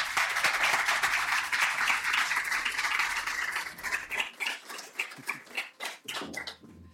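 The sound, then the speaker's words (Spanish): A live audience, at the first recording made with an audience, applauds a guest in a dense, steady burst of clapping that thins out after a few seconds into scattered individual claps before fading. No one speaks over it. “Os pido por favor un aplauso porque es la primera vez que grabamos con público y yo creo que este invitado se lo merece,”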